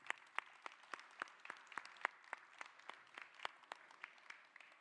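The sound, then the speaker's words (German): A small round of applause welcoming two guests coming up to join the group: a handful of people clapping in a steady, fairly quick rhythm of sharp claps over a soft bed of scattered hand noise, moderate in loudness, with no one speaking. “Einen kleinen Applaus für Markus und Timo.”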